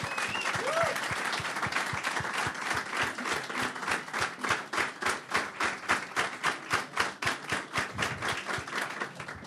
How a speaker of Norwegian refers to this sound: skal vi ta en liten applaus for den helt rå premien, eller? Ja.